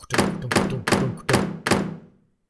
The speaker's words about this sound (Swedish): Och eh, dörrarna på nedervåningen smäller plötsligt igen och så...